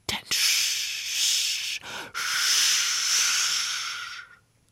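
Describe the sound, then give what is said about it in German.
Tall grass rustling in a steady, hissing swish that runs for about four seconds, broken by one brief pause partway through, then fading out. No voices accompany it. “Und da waren die Gräser so hoch und raschelten.”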